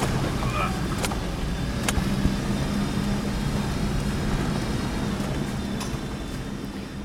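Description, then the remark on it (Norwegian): A heavy truck engine labors in a low, continuous, loud rumble, with occasional sharp clicks and rattles over the steady drone, as the truck climbs a steep, muddy road in the rainforest. “Her var det jo midt ute i regnskogen på denne berømte veien og sleit litt. Det var altså rett opp og bare gjørme.”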